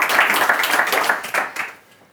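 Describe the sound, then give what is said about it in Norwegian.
An audience at an author event applauds, a dense patter of many hands clapping at once that stays steady for a moment and then quickly tapers off and fades to quiet. “Vi kan godt få en applaus imellom, så får vi litt sånn god stemning.”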